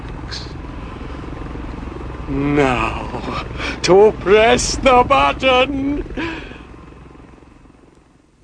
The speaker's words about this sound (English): Eyesore has heard the helicopter, but the sinister Agent Q hasn't noticed it.